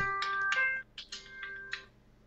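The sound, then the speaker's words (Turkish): An electronic alarm rings in a quick series of bright, high-pitched tonal chirps and bursts, sustained beeping tones running underneath, fairly loud with no talking. “testi için alarm çaldı da kusura bakmayın arkadaşlar.”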